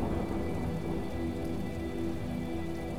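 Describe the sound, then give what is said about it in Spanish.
Steady rain patters on a hard surface, a dense, continuous hiss of drops at an even level throughout, with no voices. “Pero para eso está la lluvia, la lluvia que espera y acontece detrás.”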